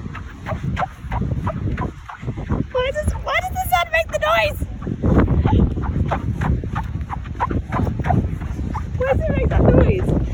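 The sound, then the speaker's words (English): Squeaky quartz sand on a beach at Gold Coast crunches underfoot in a steady run of footsteps, with sharp, high-pitched squeals standing out in a burst near the middle and again near the end. “the reason why the sand might make that squeaky sound is, according to Clean Island, there is quartz in the sand, and the quartz itself is very round when you observe this in a microscope.”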